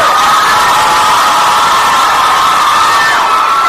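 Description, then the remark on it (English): A crowd cheers loudly and continuously for the girls' team winning the week's quiz, a dense wash of high-pitched shouts and whoops that holds steady for several seconds with no speech over it. “Girls win for the week. Well done. Give me a cheer.”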